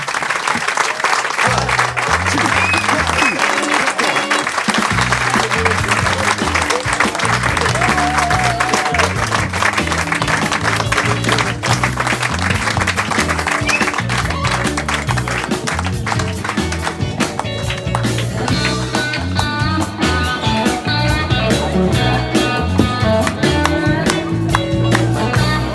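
A crowd applauds steadily for the whole stretch, a dense wash of clapping that never lets up, while a band's music continues underneath with a steady low beat.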